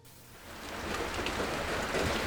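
Steady light rain patters on the roof of an old, dilapidated house, a soft continuous hiss of scattered drops that swells slightly after the first half second and then holds even, with no voices.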